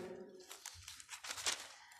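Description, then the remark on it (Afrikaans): Quiet rustling of Bible pages being handled and turned, a few soft crinkly bursts over about two seconds with no one talking. “Ekskuus ek net die Bybel hier nou, ek het nou my”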